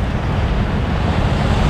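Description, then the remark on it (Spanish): A water fountain in the Plaza de Armas of Santiago, with the square empty of people, splashes in a steady, unbroken wash of noise, fairly loud and even throughout, with no voices or other sounds breaking through. “Si ponía atención, vaya a escuchar de fondo una fuente de agua.”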